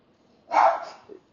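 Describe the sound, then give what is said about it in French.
A single sharp dog bark, loud and brief, followed by a softer short yip, with quiet background otherwise and no talking. “Excusez-moi, mon chien a jappé, puis il m'a comme mêlé,”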